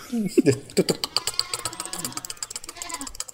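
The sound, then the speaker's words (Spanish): Rapid, steady clatter of hoofbeats from a horse galloping in a hurry, fairly loud, with a brief voice at the very start. “un caballo muy apurado, ¿no?”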